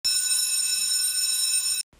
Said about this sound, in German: Oh, ich sehe schon, die Zeit ist dran und da klingelt es schon.